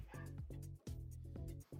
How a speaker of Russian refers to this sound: Там, э, блин, собаки, заткнитесь!